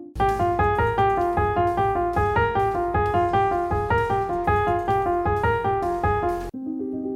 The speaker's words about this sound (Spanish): Y tiene forma de ostinato, es decir, notas repetidas una y otra vez para generar todo tipo de significaciones, en este caso, suspenso y suena así.